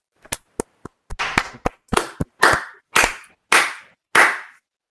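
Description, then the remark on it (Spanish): A short burst of applause made of about a dozen sharp, separate claps, quick and uneven at first, then slowing into louder claps with a ringing tail, with no voices. “aplausos.”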